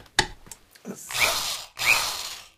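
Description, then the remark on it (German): An electric drill, plugged back into the socket, whirs in two short bursts, spinning up with a high-pitched whine each time before cutting out, fairly loud, after a few sharp clicks. “Dann kann die Bohrmaschine ja gar nicht gehen.”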